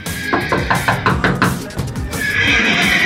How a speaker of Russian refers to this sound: И вот начинается ржание лошадей. И вот лошади, это, это какой-то ужас. Вот мы живем наискосок, получается. Прямо рядом со мной конюшня, вот это безумное ржание лошадей.